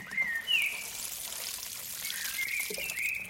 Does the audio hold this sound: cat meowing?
no